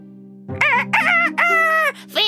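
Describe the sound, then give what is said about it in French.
A farm rooster crows loudly in mockery, a single drawn-out cock-a-doodle-doo in several strained, rising and falling bursts over a steady low hum in the background. “Tous les autres animaux de la ferme se moquaient de lui.”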